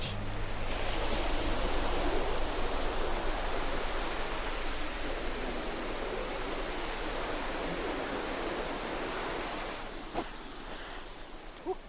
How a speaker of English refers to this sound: And I think even from this this parking lot, high up on a cliff face, looking down over the sea, you can see the white sandy beach and possibly the heads of some wetsuited braves amongst the waves on Shirahama Beach.